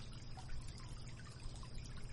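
A river in the mountains flows steadily, its water rushing and babbling in a continuous, even wash of sound with no voices, fairly soft and constant throughout.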